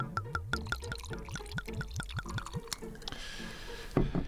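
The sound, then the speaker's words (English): Ginger ale glugs rapidly into a glass in a quick series of rhythmic gulps, then gives way to a soft, steady fizzing hiss as the bubbles settle, clear with no talking. “Ginger ale. Ooh, that's a nice fizz.”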